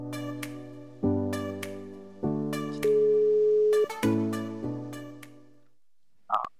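A telephone ringing tone plays while a call is placed to a member of the motorsport club NMK Tønsberg: a sequence of steady electronic tones shifting in pitch every second or so, fairly loud and clear, with no one talking.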